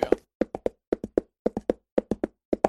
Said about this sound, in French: Waouh, quelle allure, professeur Tiens, mais on dirait que son cheval s'emballe. Ouh là là, il va de plus en plus vite. Ralentis, espèce de canasson, ralentis